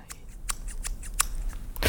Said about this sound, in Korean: 이게 무슨 소리일까요? 머리카락 자르는 소리입니다. 머리카락. 오늘 보물소리입니다.